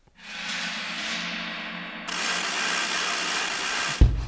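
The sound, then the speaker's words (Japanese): An engine roars steadily and loudly, jumping to a fuller, louder rev about halfway through, then ends in a sudden thump. No one speaks. It opens an amateur-made original theme song paying tribute to Showa-era heroes. “エンジン音が入ってきた。”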